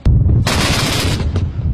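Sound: gunfire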